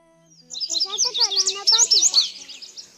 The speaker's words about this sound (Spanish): ¡Oh! ¡Un pajarito! Ven, ven, venga, mi amor, venga, venga, venga.